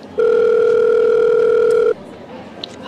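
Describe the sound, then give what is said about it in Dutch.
A steady, loud telephone tone hums for nearly two seconds as a call goes through, then cuts off abruptly, leaving quiet background noise and a faint click. “Dus misschien kunnen we gewoon eens even naar haar bellen.”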